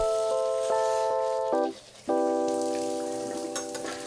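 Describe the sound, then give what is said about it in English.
Water runs from a kitchen tap in a small one-bedroom apartment in downtown Madison, Wisconsin, in a steady hiss with a pitched pipe whine over it, as someone gets a morning drink of water. The flow briefly cuts off, then turns back on and continues, no voices. “Get a drink of water from the kitchen tap.”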